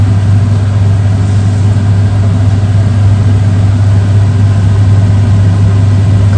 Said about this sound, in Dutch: Ik ga de afzuiger aanzetten, want ik ben bang dat hij straks eh, het rookalarm uitnodigt om even te roepen.